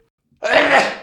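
A single loud sneeze bursts out abruptly after a brief quiet moment, a sharp explosive burst of breathy noise that fades quickly.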